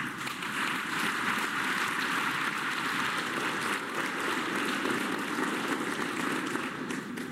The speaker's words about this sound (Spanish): Agradecer también mucho a las compañeras y compañeros del gabinete que nos acompañan el día de hoy. Un aplauso también para todos ellos.